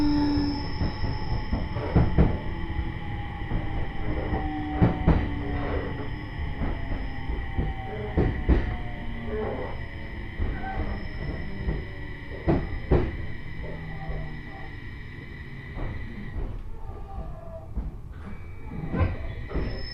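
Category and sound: vehicle, train running on rails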